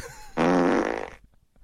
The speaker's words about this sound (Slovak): Výběr z efektů zvuků prdů. Standardní každodenní prd.